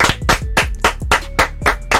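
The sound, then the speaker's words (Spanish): Brief applause of about eight sharp, evenly spaced claps in a steady rhythm, fairly loud, with a faint tonal hum beneath and no talking. “Pero yo nunca entiendo si cuando, o sea, cuando vienen columnistas, ¿aplaudimos o hacemos el eh?”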